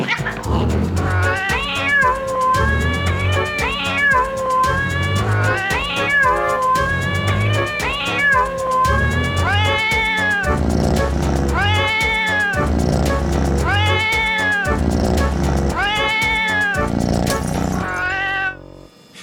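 A cat meows over and over, about ten loud, drawn-out, wavering calls in steady succession, with no one speaking.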